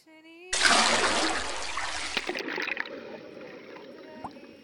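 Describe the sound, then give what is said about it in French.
A sudden, loud splash as a body plunges into the icy water of a pond, a burst of rushing churn that fades into softer bubbling and trickling, preceded by a brief steady tone. “Deux jours plus tard, elle avala une grosse pierre et bascula dans l'eau glacée d'un étang.”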